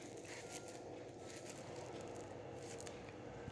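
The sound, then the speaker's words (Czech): Tarot cards being drawn from a deck: soft, papery sliding and rustling with a few faint, crisp flicks scattered through, quiet and steady with no one speaking. “Na druhou stranu, ještě moment, tahám další karty.”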